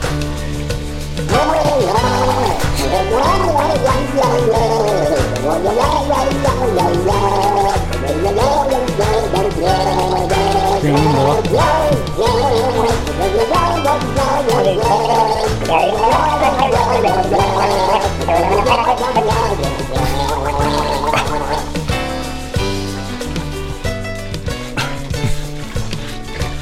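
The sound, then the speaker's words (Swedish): A voice carries a wavering melody through a mouthful of water, bubbling and gurgling loudly and continuously for nearly half a minute, with no other sounds. “Gurgling är en underskattad sångform.”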